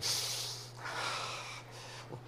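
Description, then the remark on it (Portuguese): A deep, hissing sniff followed by a long, breathy exhale, as someone demonstrates opening a new car's door, breathing in the new-car smell, holding the breath and letting it out slowly. “Eu abri a porta e fiz assim, e prendi a respiração. Aí eu soltava”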